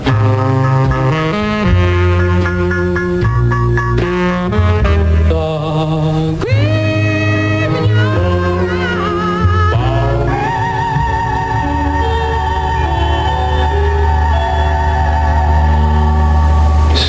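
A doo-wop vocal group song plays loudly and steadily on CBS FM 101.1's doo-wop show with Don K. Reed, on a Sunday night in New York. Close sung harmonies run over a slow backing that carries on without a break.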